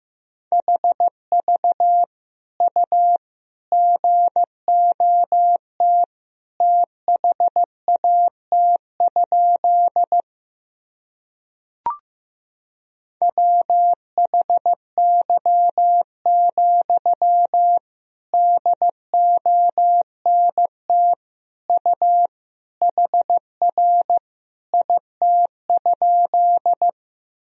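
Morse code sent at 15 words per minute, sending practice sentences of common words and abbreviations: a single clear, steady-pitched beep keyed into short and long pulses, with one brief pause and a faint click partway through. No voices.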